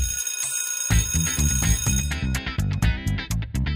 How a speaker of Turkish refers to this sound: Okul zili.